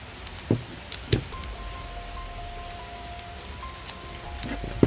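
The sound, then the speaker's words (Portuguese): Steady outdoor rain hisses throughout, with a few sharp taps and a faint high-pitched tone drifting in the background. No one speaks. “estão ouvindo a chuva aí, que eu fiz isso aqui fora exatamente por causa dos gases que ela pode soltar, né?”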